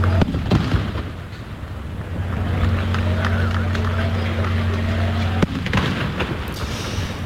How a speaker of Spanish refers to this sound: Esas son las salvas de honor que se han escuchado esta mañana en la llegada a Sevilla de la réplica de la no victoria.